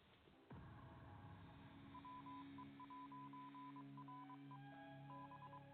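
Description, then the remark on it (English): A Morse code beeping effect: a steady high tone keyed on and off in short and longer pulses, riding over a sustained humming musical drone that starts abruptly. “Magic interview machine, Morse code me.”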